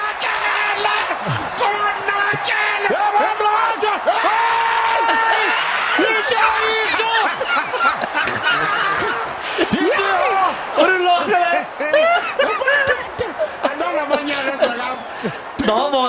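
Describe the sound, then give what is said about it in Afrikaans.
A loud rugby stadium crowd at an All Blacks match screams and yells continuously as Beauden Barrett loses the ball, many overlapping voices rising and falling together in a sustained roar that stays intense throughout. “Daar waar hulle skree, dis die oomblik wat Bouden Barrett die bal verloor.”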